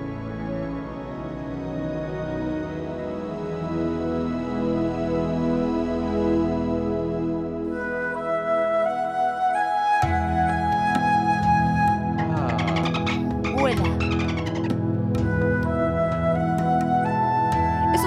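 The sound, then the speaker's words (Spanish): A soft, sustained instrumental meditation-style cover of a pop song, with a breathy flute-like melody floating over warm pads and gentle harmonic layers, calm and ambient, relaxing, with no voices. “como medio Titanic también, la introducción de Titanic. La flautita ahí.”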